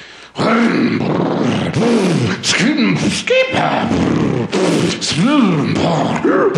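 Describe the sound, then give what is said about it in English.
A voice mimics a go-kart engine being warmed up for a go-kart championship, buzzing loudly up and down in repeated rising and falling sweeps, nearly continuous for several seconds with brief breaths between. “I'm, I'm warming up my go kart.”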